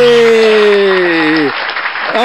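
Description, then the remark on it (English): A voice imitates audience applause and cheering at the Hollywood Bowl: a loud, breathy roar that slides gradually downward in pitch for about a second and a half, followed by a shorter, softer burst. “Oh, listen to that applause for you”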